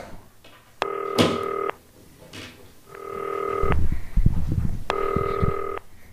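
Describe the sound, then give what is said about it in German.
Ringback tone of an outgoing phone call placed on a green telephone: three steady, buzzy mid-pitched tones, each about a second long and spaced evenly apart, with some faint handling thumps between the second and third rings. “Klingelt aber jetzt.”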